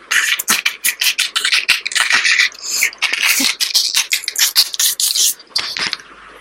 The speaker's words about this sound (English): that sounds absolutely delicious i particularly love that whisking sound